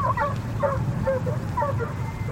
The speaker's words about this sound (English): Unless an appeal is successful, fox hunting with dogs, like these giving chase near Hound Tor, England, is to cease in three months, according to an act of the House of Commons.